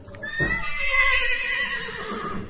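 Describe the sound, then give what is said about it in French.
Thalès, a horse ridden at an equestrian centre, neighs once, a loud whinny with stacked bright harmonics that wavers and trails off over a couple of seconds, with faint low rumbling underneath. “Maths plus équitation, et devine quoi Son cheval s'appelait Thalès.”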